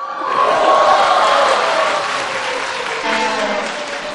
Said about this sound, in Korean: 지금 사람들이 박수를 치는 와중에도 임용고시 최종 합격했습니다.